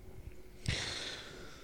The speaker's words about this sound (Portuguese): Ai, boceja.